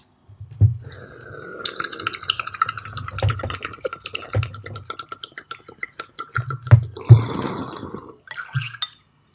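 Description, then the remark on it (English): Steady wet bubbling and gurgling of a bong hit being taken for a sound effect, with crackly pops and a low rumbling churn that swells and fades over several seconds, ending in a few louder bursts. No one speaks. “I did not have time to load my vape beforehand, so there is just going to be like weird vape sounds as I'm doing this, but maybe that's part of the experience.”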